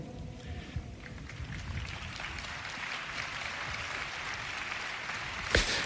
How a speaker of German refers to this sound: Beifall nach dem Aufruf des Papstes, sonntags zur Messfeier zu gehen und sie als Mitte des Lebens anzusehen.